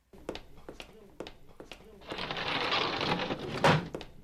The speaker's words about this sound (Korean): 그렇게 일순간 교실은 쥐죽은듯 조용해졌고 묘한 긴장감이 흐르는 가운데 똑딱 똑딱 시계 소리만 들려오던 바로 그때였습니다.